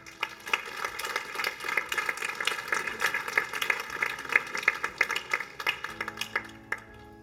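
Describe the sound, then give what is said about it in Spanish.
An audience breaks into steady applause for the Lord after a prayer, many hands clapping together in a dense, crackling wash that holds for several seconds before thinning out near the end. “Un aplauso, Señor, familia.”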